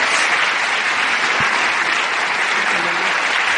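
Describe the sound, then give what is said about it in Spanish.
Steady, dense audience applause welcoming a Diamond Executive fills the whole stretch, a loud continuous wash of many hands clapping at an even level with no talk over it. “Ayúdenme a recibir con un gran aplauso diamante ejecutiva”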